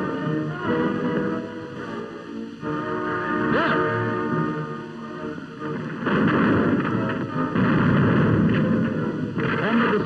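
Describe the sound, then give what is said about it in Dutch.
The heavy naval guns of the Dutch gunboat Flores, part of an Allied fleet, fire in a loud, continuous barrage, the booms blurring into a dense roaring rumble with echoing tails that swell louder toward the end. “werden gevuurd”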